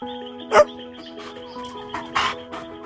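A single sharp bark from the dog Ten as it bursts out of a bush rings out near the start, followed by a couple of softer yips, over a steady background hum with no talking.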